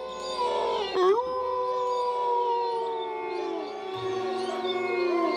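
Several wolves howl together in long, overlapping wails that rise and fall in pitch, steady and fairly loud for the whole stretch, with no talking.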